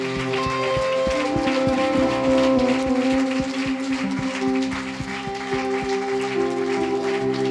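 An audience claps continuously for several seconds for those who stood up that morning, a dense patter of many hands over steady, sustained keyboard-like chords that hold underneath the whole time.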